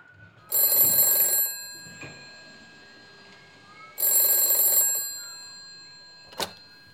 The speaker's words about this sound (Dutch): Ik ben zoals gewoonlijk vanochtend aan het eh, rommelen in de hangar. Allerlei klusjes liggen hier te wachten. En vandaag is de brandslang aan de beurt. Als plotseling ons telefoon gaat.